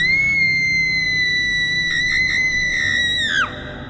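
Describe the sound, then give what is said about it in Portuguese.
A frightened woman screams as a sound effect in an audio story: one long, piercing, steady cry held for several seconds before it slides downward and cuts off. It's loud, with no talking. “Um grito de mulher. Assustada, a, a voz era familiar.”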